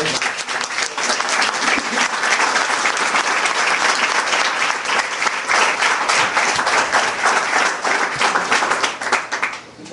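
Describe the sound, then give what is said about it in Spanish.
Sustained group applause from a group in a hall, ending a visualization exercise. It is a dense, steady wash of many hands clapping at once for the full ten seconds, loud, with no talking over it. “ahora regresemos poco a poco, volvemos al salón y vamos a terminar esa visualización con un fuerte aplauso”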